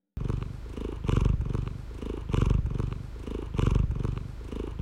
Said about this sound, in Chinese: 既然是聊呼噜声，我们先来听听猫呼噜的声音。